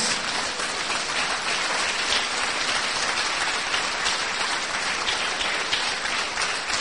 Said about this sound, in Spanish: Sí, eh, eh, denle el aplauso a Dios.